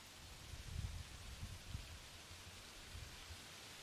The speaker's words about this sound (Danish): så er der slet ikke noget at høre. Kun vinden, der suser, og det er det.